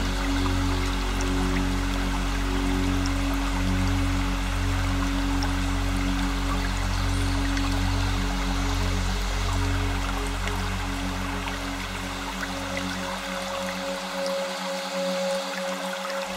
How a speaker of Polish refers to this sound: szum małego strumienia ogrzewanego promieniami słońca.